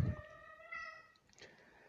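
A pet cat at home meows once in a drawn-out tonal cry that tapers off, followed by a softer, brief chirp. No one speaks, and all around is quiet.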